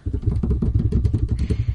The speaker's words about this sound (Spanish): Señoras y señores, con ustedes, por favor, redoble de tambores.